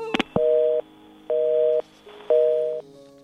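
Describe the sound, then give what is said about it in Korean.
A couple of sharp clicks as a phone call is hung up, then a steady telephone busy tone beeping on and off in three even, fairly loud pulses, with no voices. “오, 오빠, 오빠 전화 끊지 마 제발.”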